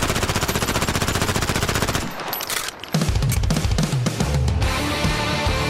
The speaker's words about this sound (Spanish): Vamos un poquito más y ahí agarramos el cargador, la ametralladora y se viene.